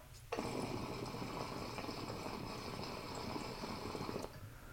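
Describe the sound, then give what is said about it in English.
Water bubbles steadily through a glass pipe with a welded perc, a continuous gurgling rush with a bright, airy hiss lasting about four seconds before cutting off abruptly. No one speaks. “With these, you can sit here and just watch the bloopers, like bubbles go through there. Watch the tornado.”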